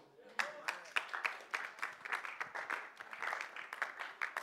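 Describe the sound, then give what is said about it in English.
A crowd applauds steadily during a Bible sermon, dense clapping at moderate volume, with some overlapping vocal sounds mixed in beneath the claps. “And those of you are not clapping, give me one reason why you are not clapping.”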